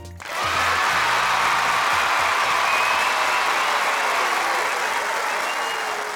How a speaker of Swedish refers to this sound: En miniapplåd från mig.